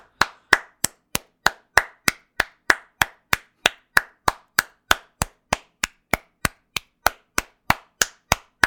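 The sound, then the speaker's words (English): A single audience member claps steadily and briskly, roughly three claps per second for about nine seconds, each sharp clap trailing off in a short echo that makes it sound like a larger crowd. No one speaks. “Um, all it I just took, want to see how much time I could fucking kill on this podcast by clapping.”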